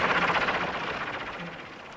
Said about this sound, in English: It's Barbara Binkley in a helicopter!